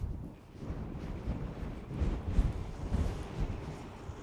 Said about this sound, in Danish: Nu blæser det godt nok en del her. Så jeg håber, det er lytteværdigt.